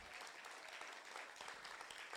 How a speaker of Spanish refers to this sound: ¿Alguien puede dar un aplauso fuerte al Señor?